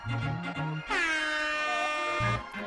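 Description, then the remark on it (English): A single loud, blaring air horn blast lasts over a second, bright and brassy with dense harmonics, set between short bursts of music or voices before and after it. “And I love the air horn too.”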